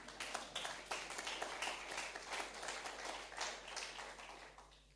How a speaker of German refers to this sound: Klatsch ruhig, das ist nämlich zur Ehre Gottes.